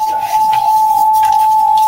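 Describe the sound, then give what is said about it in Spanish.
A steady, piercing audio feedback tone, caused by a high volume on a caller's equipment, rings continuously at a single pitch for about two seconds, loud and unwavering, with faint scratchy background noise beneath it and no talking. “Hay algún volumen alto que realimenta la, emisión.”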